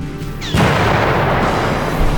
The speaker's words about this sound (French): Et le port s'embrasa. Les soldats, sur les quais, soufflés par l'explosion, furent tués instantanément ou projetés dans l'eau leur véhicule explosait.